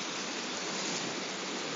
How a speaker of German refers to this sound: ihr hört ja das Meer plätschern, dahinter brechen sich gerade die, die, die Wellen